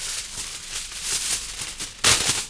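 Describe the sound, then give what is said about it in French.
Crisp crinkling and rustling of aluminium foil as it is placed on the end of a trumpet bell as a mute. A run of bright, hissy crackles is followed by a louder burst of crumpling near the end, like a sandwich being unwrapped. “Donc on entend déjà la, la texture du papier aluminium. Le bruit du sandwich. Le bruit du, sandwich qu'on déballe.”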